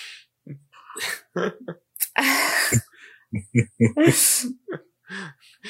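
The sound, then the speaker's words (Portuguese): A drawn-out, breathy yawn rises and trails off, set among short murmured vocal sounds and quick breaths, with another airy exhale a moment later. “Cara, esse teu bocejo pareceu irônico.”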